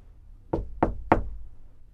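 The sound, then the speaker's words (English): Three firm knocks on a door, evenly spaced about a third of a second apart, fairly loud, with no voices and only faint background hum. “But soon afterwards, someone knocked at my door.”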